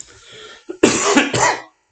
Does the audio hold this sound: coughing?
yes